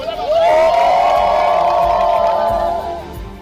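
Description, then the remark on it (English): A large group from a village bursts into a sustained cheer as a newly dedicated borehole is tested for water, many voices shouting and whooping together at a loud, steady level for about three seconds before easing off slightly at the end. “That's my favorite celebration.”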